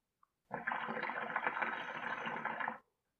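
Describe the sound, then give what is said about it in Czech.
A sustained burst of water bubbling and gurgling as someone takes a puff from a hookah (water pipe), lasting a couple of seconds, steady, preceded by a tiny faint click. “Hezky jsem to uvedl potáhnutím”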